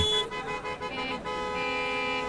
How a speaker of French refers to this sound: Le trafic est à l'arrêt. Un concours de klaxons se fait entendre proche du carrefour vers lequel je me dirige.